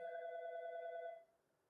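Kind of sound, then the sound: signal or alarm, telephone ringing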